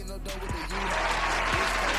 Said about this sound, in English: Real spit. Round of applause